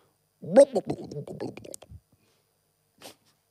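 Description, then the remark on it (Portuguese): A voice imitates a hot water bottle in a bed sloshing with a wobbly, gurgling vocal sound lasting over a second, followed after a pause by a brief soft breathy hiss. “eu acendo a luz e tenho um saco de água quente na cama”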